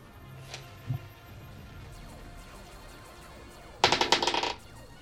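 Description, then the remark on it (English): A quick rattling clatter of a twenty-sided die tumbling across a hard tabletop, a burst of rapid clicks lasting under a second after a quiet stretch with a few faint bumps. “so next up, I need you to roll me a d20 at the end of your turn.”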